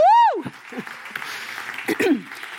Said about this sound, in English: And it says, yeah, you can applaud the Lord. Woo!